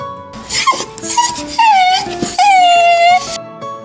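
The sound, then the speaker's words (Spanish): A dog whimpers sadly in a series of high, drawn-out whines that waver up and down, the last two longer and louder, with no talking. “Nuestro amiguito perro se quedó muy triste, muy triste.”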